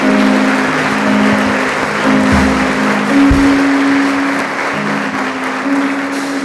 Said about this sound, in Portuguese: Pode aplaudir o Senhor.